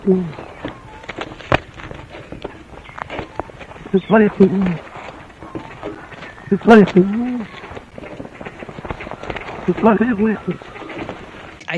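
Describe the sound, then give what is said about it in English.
A duck named Ripper mimics human speech, saying 'you bloody fool', in three short, croaky, voice-like phrases spaced several seconds apart, against a steady rustling, buzzing outdoor background; a 1987 recording made by an Australian researcher. “Confirmed, a duck named Ripper learned how to say, you bloody fool.”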